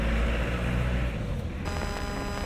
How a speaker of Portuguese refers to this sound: Desculpe, estou na rua, está muito barulho.